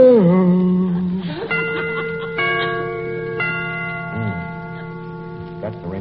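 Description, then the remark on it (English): A clock chimes the hour, its bell-like tones striking one after another and ringing on in overlapping, sustained notes, while a low voice murmurs at the start and faintly underneath. “but to get them chimes made softer. No sense in letting the neighbors hear the time for nothing.”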